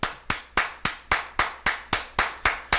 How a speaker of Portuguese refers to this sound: Palmas para você, meu querido Median.